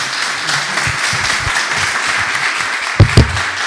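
Steady applause from an audience, a dense wash of many hands clapping at an even, loud level throughout, with a couple of sharper thumps near the end.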